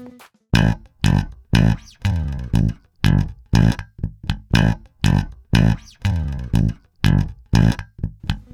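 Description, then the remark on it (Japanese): A reproduction of a live tour bass guitar line, similar to a tour's bass line, plays alone: a steady rhythmic run of about a dozen punchy, plucked notes with a slightly gritty, effected tone and a few held notes mixed in. “…ツアーのバリエーションみたいな感じでですね、あの似たような感じのベースラインが奏でられています。”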